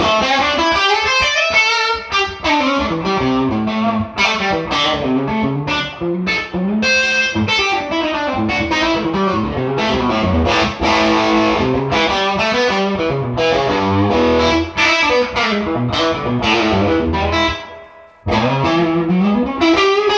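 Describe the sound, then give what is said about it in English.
An overdriven electric guitar played through a Love Pedal Chula overdrive pedal plays a continuous, busy lead line with bent and sliding notes, thick and gritty throughout, with a brief drop to near silence before resuming. “If people want to know what my sound is, it's that Love Pedal Chula.”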